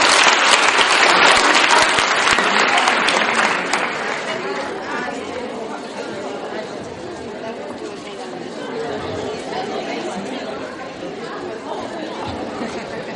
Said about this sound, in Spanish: Un aplauso y aplauso.